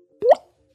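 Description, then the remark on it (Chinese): A single water-drip plop representing a falling teardrop in a Taiwanese government anti-drug public service announcement, with a quick upward-bending pitch and a fairly loud, brief splash, standing alone against silence. “这是落泪的声音，也是心淌血的声音，也是尿失禁的声音。”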